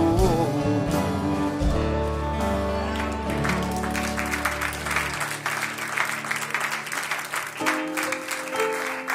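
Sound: audience applause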